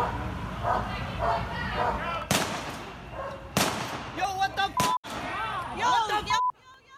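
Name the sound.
police dog barking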